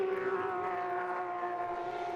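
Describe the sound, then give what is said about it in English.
Race cars driving past down the inside of a racing circuit during a race, their engines merging into a steady, buzzing roar with a sustained high tone that holds without a break for a couple of seconds. No one speaks. “Watching the cars go past us here down the inside again.”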